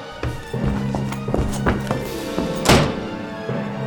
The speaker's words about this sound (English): I, I can't see. Help me close the door now.